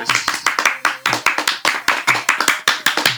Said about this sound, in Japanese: 拍手が長い